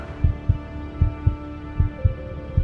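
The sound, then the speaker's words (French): An astronaut's own heartbeat, heard inside the spacesuit during a spacewalk outside the spacecraft, thumps in paired low beats, lub-dub, about twice a second, muffled over a faint continuous hum, with no voices. “Je commence à entendre les bruits de mon propre corps.”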